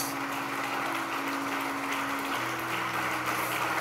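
A church audience applauds God during a sermon, a dense, continuous patter of many hands clapping at an even loudness throughout, with a low sustained hum beneath and no speech over it.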